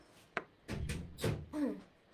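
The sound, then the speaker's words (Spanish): A door being opened to let a dog in: a sharp latch click, then scraping, shuffling movement and a brief squeaky creak, with no one talking. “Un momento, voy a abrirle la puerta a mi perra.”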